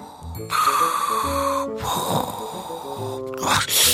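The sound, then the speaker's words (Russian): Three deep, heavy breaths, drawn in and pushed out in slow succession, loud, while inhaling steam from boiling potatoes, with a low sustained musical tone humming underneath. “Дыши, Кипитоша, дыши!”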